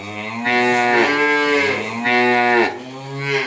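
A cow moos loudly, three long drawn-out calls in a row, each one rising and then falling away, with no voices around them.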